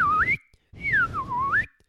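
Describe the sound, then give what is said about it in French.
A slide whistle plays two comic glissandos, the sound effect John Barry added to a film scene in which a car takes off from a bridge, corkscrews and lands across a river: one swoops upward, then after a short gap another dips down and climbs back up, over a soft rumbling background. “de whistle, side whistle.”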